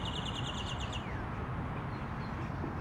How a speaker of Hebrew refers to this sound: אז uh, עכשיו כאילו הן רחוצות, הכל פה נקי, ותקשיבו איזה יופי. מדהים, מדהים, איזה ציוצים, יאללה.